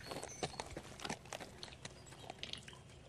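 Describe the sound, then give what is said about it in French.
Horse hooves clip-clop in an irregular, steady rhythm as a horse carrying two riders sets off, each crisp strike ringing out over a low background hum, with no voices present. “Il la retrouvait dans le bois, et, montés tous les deux sur le cheval à la crinière d'or, tenant la cage avec l'oiseau de feu, ils se mirent en chemin.”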